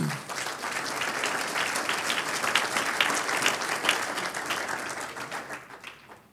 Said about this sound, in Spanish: Diga, yo quiero un aplauso al Señor.